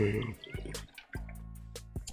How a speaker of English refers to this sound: yo, let me take a swig of this water, yo.